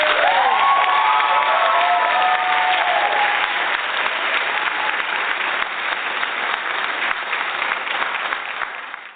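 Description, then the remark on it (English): Loud, sustained applause from the studio audience of the Everything Home Talk Radio Show in Arizona, with some whoops and cheers rising early on, the clapping continuing steadily throughout without anyone speaking. “you can hear our MLK Live Freedom love, and studio audience is ready for a crazy next couple of days.”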